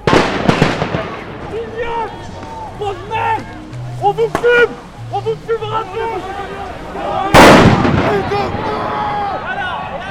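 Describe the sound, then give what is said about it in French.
Grenades fired by gendarmes in all directions pop and burst amid a crowd's shouts and chatter, with a cluster of sharp bangs at the start and one loud explosion later, its rumble trailing off. “Le blindé n'avance pas, les gendarmes tirent des grenades en tous sens.”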